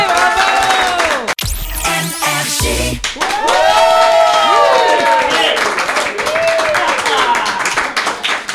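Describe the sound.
A crowd applauds steadily with dense clapping, joined by loud whistles and cheering voices that swoop up and down in pitch throughout.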